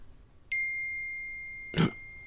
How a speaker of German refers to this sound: What, what the fuck? War das, war das mein Handy?